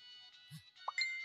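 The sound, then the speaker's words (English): A short phone text message alert chimes: a soft low plop, then a quick rising blip and a bright two-tone ping, over a steady faint tonal background hum. “Oh, oh no, I got a text message.”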